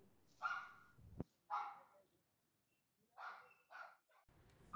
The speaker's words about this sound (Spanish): Cuando oí ladrar a Capi